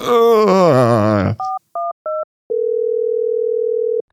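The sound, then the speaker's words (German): A voice speaks briefly, then three short touch-tone dialing beeps sound in quick succession, followed by a steady telephone tone holding for about a second and a half, clear; someone is phoning the police. “Also, nee, nee, ich rufe hier weiter an.”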